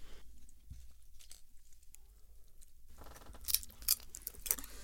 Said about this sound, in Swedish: Jag går på tryffelchipsen. Ja. Det hörs va? Det hörs.